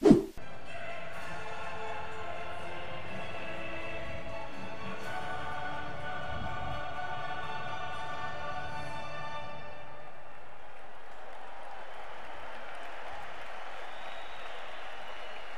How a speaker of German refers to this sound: Ja, das muss man echt so einen Moment in sich sacken lassen, die Champions League-Hymne hier in Hoffenheim zu hören.